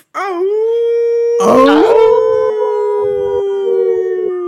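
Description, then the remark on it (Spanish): A dog lets out a long, steady, loud howl, rising at the start and holding its pitch; a second wavering howl briefly overlaps partway through. No one speaks. “pues te digo que ahora está mejor así con este método, porque si no, la supresión ahí me, corta el aullido.”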